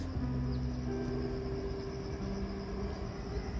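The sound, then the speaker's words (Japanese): Autumn insects chirp in a steady, continuous high trill outdoors on an overcast, windless late-August morning, with no cicadas, moderately faint, over a low constant hum from machinery or traffic. No voices. “風もなく、セミの鳴き声なく、えー、これは秋の虫の、えー、鳴き声がしてますね。”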